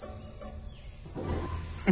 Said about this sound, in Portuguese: Bota o barulho de grilo aí.